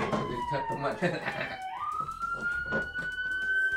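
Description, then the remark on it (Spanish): A police patrol car siren wails steadily outside, sounding because the patrol car will not start and has got stuck, holding a tone that drops and then jumps higher partway through, under people talking. “Ah, creo que no arranca su patrulla y es lo que está sonando.”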